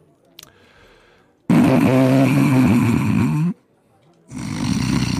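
Loud, rasping snoring in two long breaths: a harsh, buzzing two-second snore, a brief quiet pause, then a second snore that runs to the end. No talking.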